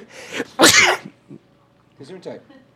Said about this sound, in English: I can sneeze all I want.